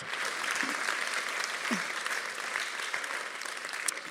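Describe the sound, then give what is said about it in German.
A church audience claps steadily for a few seconds for a child who was brought up front, a dense, even wash of many hands with no voices standing out. “Vielen Dank, dicken Applaus.”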